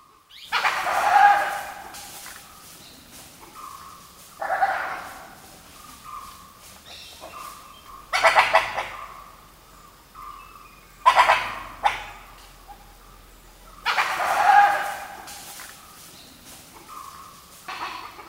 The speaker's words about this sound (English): Now, Vijay was close enough to see the animal making this noise. It's a type of wild dog called a dhole. Dholes are native to southern and eastern Asia, and they're related to other canines like coyotes and jackals.